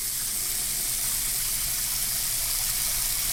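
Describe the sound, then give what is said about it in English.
Water pours steadily from a shower head in a continuous, hissing spray, fairly loud, with no break or change in flow and no voices. “It's a shower head. It's a shower. Water coming out of a shower faucet.”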